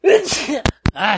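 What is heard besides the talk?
sneeze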